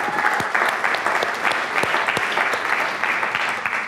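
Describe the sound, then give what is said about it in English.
A crowd at a book reading claps steadily for the author of the book being presented, a dense wash of many hands beating together at a fairly loud, even level for several seconds, with no voices rising above it. “Yeah, give him a.”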